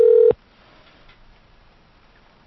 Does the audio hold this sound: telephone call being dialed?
yes